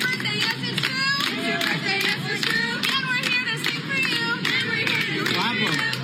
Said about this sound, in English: He's turning five years old. Can I get a round of applause?